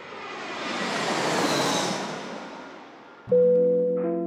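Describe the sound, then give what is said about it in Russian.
A steady, rushing airplane engine drone in the cabin of a plane preparing to land in Ufa swells and eases over a few seconds, then gives way to a bright sustained chime-like tone near the end. No one speaks. “Дамы и господа, пристегните ремни безопасности, наш самолет готовится к посадке в Уфе.”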